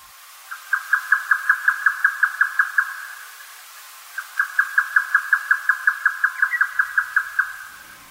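A grey nightjar on Zao, a high mountain, calls in two rapid, evenly spaced series of sharp, mid-pitched clucking notes, about fifteen notes each, separated by a short pause against a quiet background.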